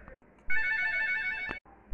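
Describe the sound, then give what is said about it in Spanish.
A harmonica sounds one bright, sustained chord for about a second, fairly loud, with only faint background noise before and after. “Entre las gallinas había una armónica.”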